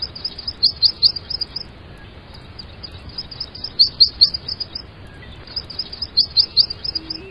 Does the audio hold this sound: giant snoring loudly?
no